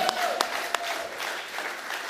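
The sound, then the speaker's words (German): A short burst of audience applause for a guest introduced as one of Germany's best DBs, dense steady clapping from many hands with a few sharper claps standing out, fairly soft overall and lasting about two seconds. “Ganz kurz, einer der besten DBs Deutschlands, bitte mal ganz kurz hier ein bisschen Applaus.”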